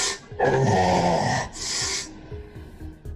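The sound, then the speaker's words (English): A voice imitates a man's blood-curdling scream: a loud, raspy, strained shriek in two bursts, the first long and the second shorter, then trailing off into quiet breathy sounds. “and then he like you know, gives out this just blood curdling scream as he's just like.”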